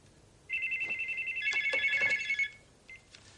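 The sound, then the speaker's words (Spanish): A telephone rings at five to midnight with a sharp, warbling electronic trill lasting about two seconds, loud, with no voices, followed by a brief faint chirp. “cuando suena el teléfono asustándolo.”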